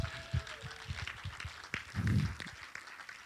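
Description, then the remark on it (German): A church audience gives warm applause to two missionaries, clapping together in a steady, dense patter that fills the few seconds, sounding soft, with a few louder low thumps mixed in. “Und vielleicht können wir denen auch mal einen herzlichen Applaus geben.”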